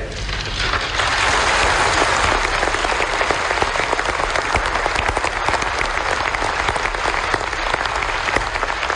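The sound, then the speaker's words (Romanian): Sustained audience applause, a dense wash of many hands clapping steadily and loudly for the full nine seconds, with no voices standing out above it. “Nu vă grăbiți să aplaudați.”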